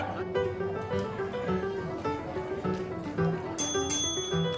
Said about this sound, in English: With the last bell, our speed daters are coming to the end of the night.